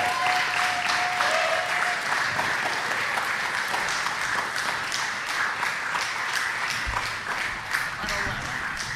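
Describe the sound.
Steady, sustained applause from an audience welcoming the next performer, a dense wash of many hands clapping at a fairly even loudness for several seconds, with a faint murmur of voices mixed in.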